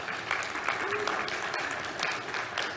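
An audience applauds a couple's news that their second baby is coming, a dense, steady wash of many hands clapping at even loudness throughout, with a brief vocal call briefly rising through the noise.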